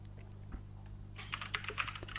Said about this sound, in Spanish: Y además es que eh, el, teclado mecánico de este señor pues suena muchísimo.